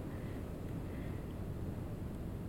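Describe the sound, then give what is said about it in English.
Steady wind rumbles in the background, a continuous low, blustery roar with no breaks and no voices, moderately quiet throughout. “There is a lot of wind right now, so you might be able to hear it in the background of my audio”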